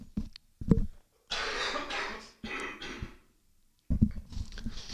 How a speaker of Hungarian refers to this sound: Mondtad, mondtad a betegséget, köhögnünk kell egyet.